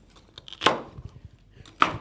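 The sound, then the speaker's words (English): Two sharp knife chops strike a separate cutting board, crisp and percussive, with a few lighter taps and faint crunching in between, as celery is chopped for a salad. “Oh, look, I'm just um, preparing a salad here. This is the celery to go in a salad.”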